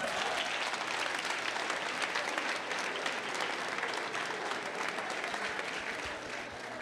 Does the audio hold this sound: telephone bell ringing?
no